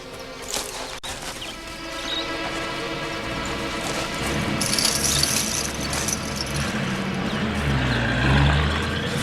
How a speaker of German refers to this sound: Sie hörten Motorenlärm in der Ferne. Ein Lastwagen fuhr weg.